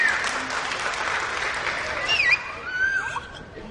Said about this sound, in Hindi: salute करता हूं इनको और इनकी गायकी को जोरदार ताली होनी चाहिए इनको